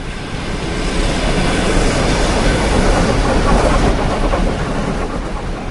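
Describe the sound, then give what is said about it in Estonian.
An old blue-and-white electric passenger train rumbles past, a loud, steady roar of wheels and carriages with a rhythmic clatter on the rails, filling the whole stretch without any talking. “mööda sõidab veel vana sinivalge rong, tehes meile kõikidele tuttavat rongihäält.”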